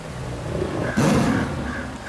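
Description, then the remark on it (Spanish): A jaguar in the Chiquitanía forest of Latin America lets out a single deep, raspy roar about a second in, loud, over a steady rumble of background noise with no voices. “A nosotros los tigres nos dicen que somos un verdadero rey del monte en América Latina.”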